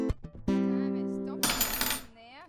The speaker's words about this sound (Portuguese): Não sei o que há de errado comigo hoje. Tudo que eu pego cai no chão. E agora a tesoura tá ah, quebrada.